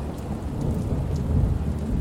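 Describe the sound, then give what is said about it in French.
A thunderstorm, the storm that struck Napoleon III's fleet and camps in 1854 during the Crimean War, rumbles with deep, continuous low thunder beneath steady rain hiss, loud, with no voices present. “En 1854, Napoléon III est en pleine guerre de Crimée lorsqu'une tempête s'abat sur sa flotte et sur ses campements.”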